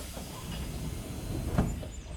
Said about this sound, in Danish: Så som toget rumlede afsted gennem bjergene på den lange tur